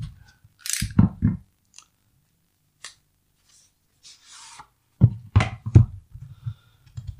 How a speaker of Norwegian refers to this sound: Det her blir jo en sånn unboxing. Her er pennen. Skal jeg klare å få den opp også, eller? Har vi, vi har tid til det? Vi har tid til Uten at jeg kutter meg.